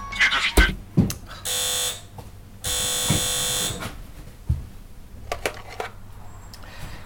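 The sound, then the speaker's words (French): An apartment intercom buzzer, rung from the street below, rings in two long, harsh electronic bursts, the second longer, set among clicks, thumps and handling noises with a faint low hum underneath. “Depuis l'interphone, je peux voir un bout de votre balcon.”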